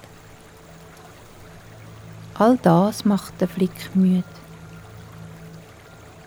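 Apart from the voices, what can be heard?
babbling river water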